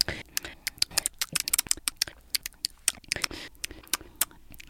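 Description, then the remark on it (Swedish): Wet, sharp smacking clicks repeat rapidly and irregularly, fairly loud, from two people chewing noisily with open lips, recorded on a phone. No talking. “Och jag gör ju det också tydligen det här är min värsta fasa, men du och jag är smaskare.”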